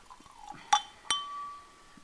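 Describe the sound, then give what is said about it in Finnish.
Two sharp glassy clinks close together, the second ringing out with a clear sustained tone, with soft handling sounds of a drink being served just before; no talking. “voit kaataa tästä.”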